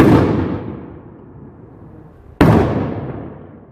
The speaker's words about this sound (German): Die Schüsse im Kiezdöner bleiben natürlich nicht unbemerkt.